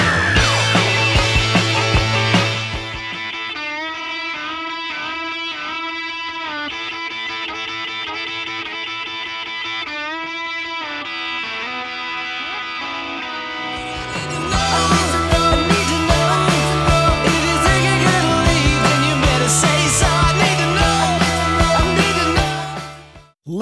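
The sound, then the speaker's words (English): An electric guitar solo in a rock song plays sustained, bending lead lines over a sparser backing, then the full band crashes back in loudly for the final stretch. No one speaks. “And here's the guitar solo”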